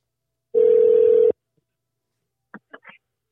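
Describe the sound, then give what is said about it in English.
A single phone ringback tone while calling a friend to bring him onto the broadcast, a loud steady electronic buzz lasting under a second, followed by silence and then a few brief clipped voice sounds, as if someone picks up. “Let's let's see he let's see let's hit him up, bruh see what we got going on, man.”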